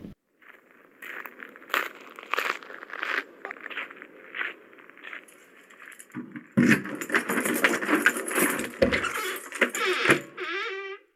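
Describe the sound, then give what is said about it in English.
Keys jangle and rustle, mixed with shuffling footsteps and clothing noise, growing busier and louder in the second half before a short squeaky creak at the end. “Um, if you um, grab your keys, my friend. We'll take a walk up the path.”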